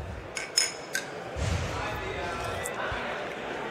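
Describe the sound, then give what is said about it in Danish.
A few quick glass clinks ring out as glasses are touched together in a toast celebrating election results, followed by a low murmur of voices and room noise. “Vi fejrer dem i en skål. Skål.”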